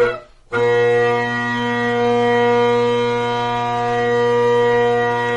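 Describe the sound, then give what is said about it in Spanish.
Bagpipe drones sound alone, without the chanter, the three drones letting air out of the bag: after a brief silent moment, a loud, steady, buzzing chord of low sustained tones holds unchanged with no melody on top. “Entonces los roncones sacan el aire de la bolsa.”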